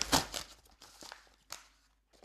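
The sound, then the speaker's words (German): Crinkly rustling of a package containing various items being handled and unpacked, a few sharp crackling bursts with quieter shuffling between them, with no one talking. “Ich höre schon. Ja. Es, es raschelt.”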